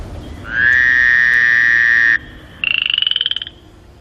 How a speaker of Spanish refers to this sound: Te iba a decir que estabas en un hospital, pero es- esto que es una rana. Un sapo.